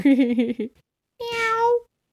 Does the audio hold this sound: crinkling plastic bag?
no